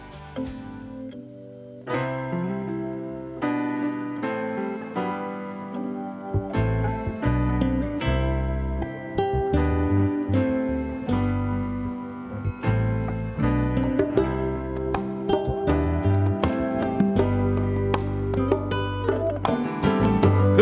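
A full-band song plays loudly and continuously, with a steady beat, a prominent bass line and layered instruments. A brighter section with crisp cymbals kicks in partway through. No one talks over it.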